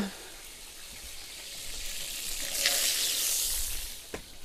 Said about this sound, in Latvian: Tā. Cepšana beidzās. Tātad mums tagad taps īpašie Valdenfrī burgeri. Mums kotletītes jau ir, maizītes ir.